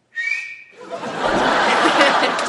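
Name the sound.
human whistling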